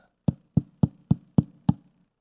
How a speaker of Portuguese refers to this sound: Jesus diz assim em Apocalipse capítulo 3, versículo 20: Eis que estou à porta e bato.